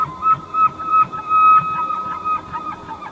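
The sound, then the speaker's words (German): A moose call: a thin, sustained whistling tone runs throughout, over a series of low, rough grunting pulses that rise and fall in a loose rhythm, moderately loud. “Elche klingen zum Beispiel so.”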